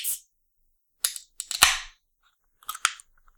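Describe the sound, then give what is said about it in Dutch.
A can of Fanta snaps open: a sharp metallic crack and pop, a short fizzing hiss, then a few small clicks and rattles. No one speaks. “Dus eh, ik kan nog eventjes eh, een, een blikje met suiker opentrekken.”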